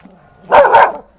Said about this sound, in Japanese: あ、いえ、随分と大きな犬ですね。ええー、図体ばっかりでかくて、ズボラな犬です。